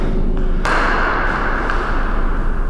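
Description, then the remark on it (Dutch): A heavy door of a reverberation (echo) chamber thuds shut once with a sharp, solid impact, followed by a steady wash of dull background noise with no talking. “Twee zware deuren weer al.”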